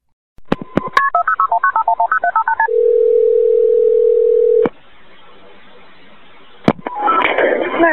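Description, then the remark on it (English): A quick run of telephone keypad beeps gives way to a steady ringing tone on a 911 emergency call line, then quiet hiss until a click connects the call and a voice starts speaking. “So I do have oh my the 911 call.”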